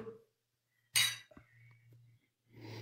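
Glasses clink together once in a bright, ringing toast, followed by a faint lingering ring and some soft background shuffling.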